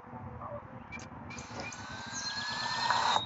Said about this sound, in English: Sometimes I be out here listening to these birds. They be talking to me. I be so damn high, be thinking they talking to me. It probably is.